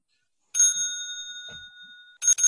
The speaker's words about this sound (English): That's your air horn? It's the closest thing I have to air horn. That's okay. an office phone. That's like the back of the office phone.